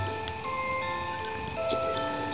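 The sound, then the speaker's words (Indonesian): A wall clock in the middle of a house ticks steadily, about two ticks per second, heard slightly distant from a bedroom around midnight, over a low, sustained droning hum with no voices. “Suruh jam dinding dari tengah rumah merambat hingga ke kamar.”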